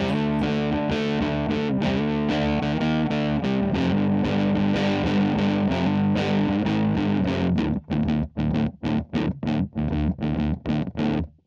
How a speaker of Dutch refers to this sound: Ik heb eh, de gitaar even laag gestemd, want dat hoort eh, bij dit soort. Nou, zelf komt ie.